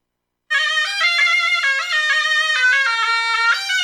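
A surna, a loud double-reed wind instrument of the oboe family used in Arabic music, plays a bright, nasal melody, with a continuous reedy tone and shifting pitches sustained for several seconds without pause.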